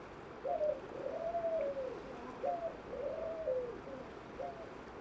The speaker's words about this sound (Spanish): Es un... Uh, uh, uh, uh que se repiten, pero el último es un poco más prolongado. Yo creo que sí es una torcaza morada.